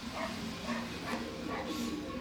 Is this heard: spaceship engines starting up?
no